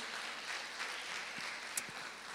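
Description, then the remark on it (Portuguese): An audience claps together to the Lord in a steady, dense wash of applause. Many overlapping hand claps form a continuous crackle with a few sharper individual claps standing out, and there are no voices. “Aleluia, aplauda ao Senhor, glória a Deus.”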